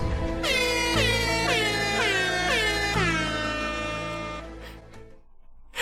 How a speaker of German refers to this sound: Natürlich ein Airhorn. Und warum kriegt er immer einen Shoutout?